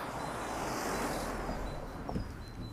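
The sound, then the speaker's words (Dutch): A bus drives past very loudly, a steady broad roar of engine and road noise that fills the whole moment, with faint high chirps above it and no one talking. “Komt even een bus heel hard voorbij.”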